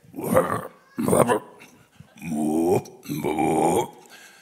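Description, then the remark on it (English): A person's voice imitates two old bullfrogs croaking back and forth at night from opposite ends of a pond behind a house: two short, rough croaks, then two longer, deeper drawn-out ones, loud. “I got, I got a couple old bullfrogs, one on each end of the pond behind my house. And during the night, you can hear, and this and that here.”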